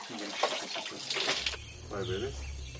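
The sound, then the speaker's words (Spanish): Sugared rainwater is poured for a guest and splashes for about a second and a half, then a person speaks briefly as the pouring gives way to a low hum. “Ofrece a su invitado agua de lluvia con azúcar.”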